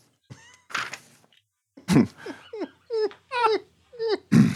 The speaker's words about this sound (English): Lights are going on in the houses down the street. Distant dogs bark.